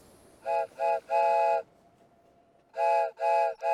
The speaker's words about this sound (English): the train is recoiling? In fear of Larry Applegate?